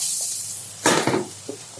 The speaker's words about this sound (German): Ähm, und jetzt kommt eben der Anbratprozess hier.